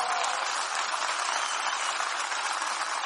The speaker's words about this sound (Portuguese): Um, dois, três. Pode celebrar. Uh! Aleluia! Pode aplaudir mais forte agora.